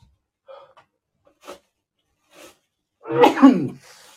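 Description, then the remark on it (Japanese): A single loud sneeze bursts out near the end, preceded by a few soft breaths and small rustling sounds in otherwise quiet surroundings. “やべ、くしゃみ出るって、あれだよね。”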